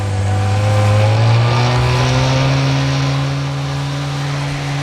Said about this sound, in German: stiegen dann in ein Motorboot um und rasten aufs Meer hinaus.